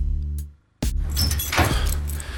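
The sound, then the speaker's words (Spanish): A sharp click is followed by keys jangling and rattling as a door is locked. The bright metallic jingling is scattered over about two seconds above a steady low hum, with no one speaking. “Apenas me detuve para poner el seguro a la puerta.”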